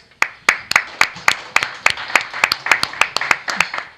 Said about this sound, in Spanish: a la cual pido un aplauso para ella.